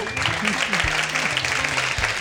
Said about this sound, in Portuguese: Salva de palmas para eles.